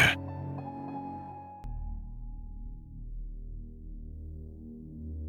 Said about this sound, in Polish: Chwilę później rozbrzmiał dźwięk dzwonka, zwiastujący nadejście przerwy.